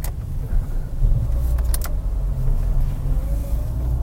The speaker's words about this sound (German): Äh, Fahrrad. Halt.